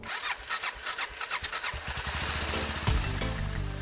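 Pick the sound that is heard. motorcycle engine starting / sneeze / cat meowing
motorcycle engine starting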